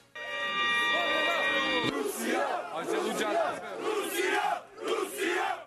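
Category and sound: crowd, crowd of street protesters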